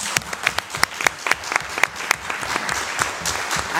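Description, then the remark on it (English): A room full of people claps steadily, many hands overlapping into a dense, crackling burst of applause that stays fairly loud from start to finish, with sharper individual claps standing out. “Can we give him a hand?”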